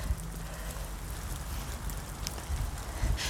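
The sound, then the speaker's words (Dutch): Rain falls steadily in a soft, continuous hiss, with scattered faint droplet ticks and a low rumble underneath, fairly quiet, with no one speaking. “Even kijken hoor, want mijn telefoon wordt zo nat.”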